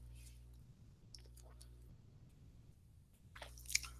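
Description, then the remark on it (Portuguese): Someone quietly drinking water: soft sips, wet swallows and small mouth clicks over a low steady hum, with a slightly louder gulp near the end and no talking. “Vou até parar um, um segundo para tomar uma água enquanto vocês tiram um print dessa tela.”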